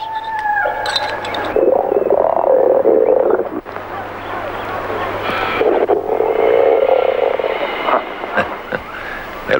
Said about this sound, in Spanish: ruido que me hacen las tripas. Cualquiera diría que llevo una llena en el estómago.